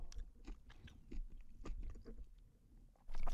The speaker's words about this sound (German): Jetzt du weißt gerade, dass du richtig am Schmatzen bist und die ganzen Leute hören das, ne?